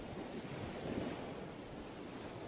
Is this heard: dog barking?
no